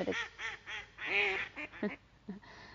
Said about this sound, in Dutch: Misschien hoor je de eentjes wel. Ik zit hier in een, eh, in een parkje aan een meertje gewoon bij eentjes die rond me heen zwemmen.